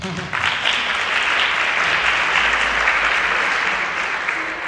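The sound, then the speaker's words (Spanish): A sustained round of audience applause, dense clapping from many hands at steady loudness for several seconds, with no voices standing out. “Aplausos, Jajam.”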